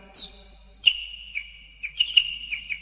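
A small bird chirps in bright, high whistled notes, a few short tweets and sustained whistles in an irregular pattern, moderately loud with no talking.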